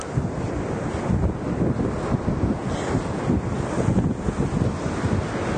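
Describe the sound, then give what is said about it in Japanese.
Strong surf roars continuously, waves breaking on an empty beach under strong gusts of wind buffeting the microphone, loud with no voices. “いまだには誰もいません波が強い風が強いよ”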